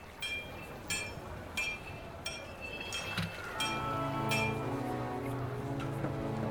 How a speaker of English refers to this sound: I hear the clinks.